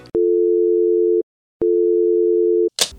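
A telephone line tone while waiting on hold sounds twice, each a long, steady, fairly loud low hum lasting about a second with a short pause between, followed by a brief burst of noise at the end.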